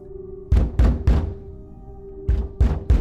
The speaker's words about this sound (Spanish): Cada golpe enviaba oleadas de terror por mi cuerpo. No era mi corazón, era alguien en la puerta.